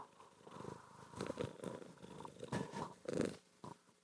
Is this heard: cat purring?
yes